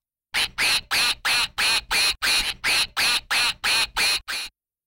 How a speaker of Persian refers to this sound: بچه بیاین به اردک خانوم سلام اردکی کنیم آره آره بیاین با هم دیگه آماده با من به زبون اردکا با هم دیگه بگیم کوک کوک کوک کوک